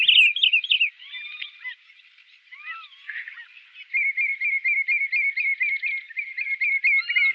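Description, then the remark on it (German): A common redshank sings in flight, up to 50 metres above the ground: ringing whistled calls, then a fast run of repeated, rhythmic yodelling notes, clear with no other voices. “Seine wohlklingenden Strophen trägt der Rotschenkel im Flug vor, bis zu 50 Meter über dem Boden.”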